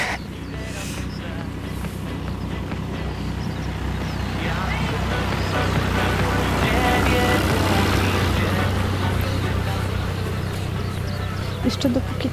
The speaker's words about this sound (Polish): Za nami jedzie traktor. To bardzo dziwne, bo tą trasą bardzo rzadko jeździ cokolwiek.